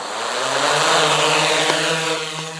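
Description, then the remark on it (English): A drone's motors spin up for takeoff into a steady, buzzing whir with a low droning hum and a hissy edge, holding a constant, fairly loud level throughout with a couple of faint clicks near the end. “You'll notice when I start up the motors, it's like go, oh, the home point has been recorded, so that's what it does when I start the motors.”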